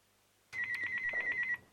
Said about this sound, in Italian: Eh, ti interrompo, scusami, c'è una telefonata di un ascoltatore. Vai.